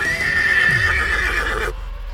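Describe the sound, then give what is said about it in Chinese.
A horse lets out one long, high, quavering whinny over soft clip-clopping hoofbeats, then the neigh cuts off abruptly, leaving only a low rumble. “马本来信心满满，超级勇敢，这次却被突然钻出来的蛇给吓到了，从此以后才变得像现在这样胆小，连一点动静都会惊动到它。”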